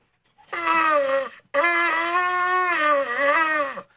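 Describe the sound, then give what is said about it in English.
A shofar blast sounds in two long notes with a brief gap, its buzzing, horn-like tone wavering and dipping in pitch as the player loses and regains the sound, cracking so it is not a proper tekiah, loud with no talking. “where it's dipping up and down, and I'm losing it. So if I if the sound cracks, it's not a tekiah.”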